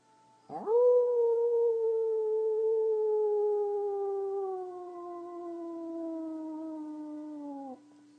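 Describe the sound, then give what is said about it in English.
A single long human howl, made after an inhale in a guided breathing exercise, rises sharply, then holds a steady, slowly falling tone for about seven seconds before cutting off, loud, imitating a wolf or dog. “And a howl.”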